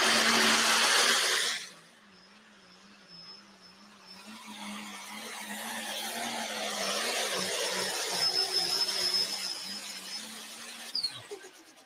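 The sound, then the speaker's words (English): George Byer's pulling tractor engine roars steadily after a brief loud burst, its low drone wavering in pitch and gradually swelling louder, with a faint high whine above and no talking. “Look for this tractor to try to get top five.”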